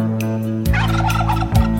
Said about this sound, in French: Il y a même des dindons, c'est pas joli les dindons.